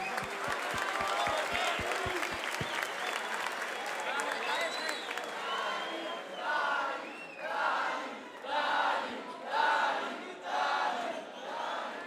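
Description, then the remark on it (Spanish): A crowd applauds and cheers loudly for two performers, dense clapping at first with a few sharp thumps, then rhythmic swells of shouting and whooping that rise and fall in repeated bursts. “Che, fuerte aplauso a los dos, loco, fuertes aplausos.”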